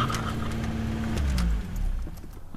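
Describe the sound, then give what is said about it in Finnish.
A Lada car, its body a licensed copy of the Fiat 124, idles with a steady low engine hum, then is switched off about halfway through, its rumble dying away and leaving a quiet stillness. “Joo, sammutetaan auton välillä”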